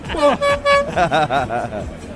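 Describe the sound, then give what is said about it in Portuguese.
A horn honks in two short, loud toots, followed by people talking and laughing over a busy background. “enfia no cu a buzina!”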